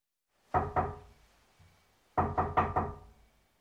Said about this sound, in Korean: 펠릭스가 쾌활한 말씨로 대답하고 노인이 다시 연주를 시작하는데 바로 그때 누군가 문을 두드렸다.